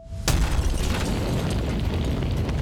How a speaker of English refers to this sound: Suddenly, a huge explosion ripped through the vehicle. The blast was so strong it shattered the windows of nearby businesses. The car was blown to pieces, and the steering wheel even landed on the roof of a six story building.